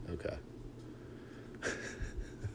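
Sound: dog yawning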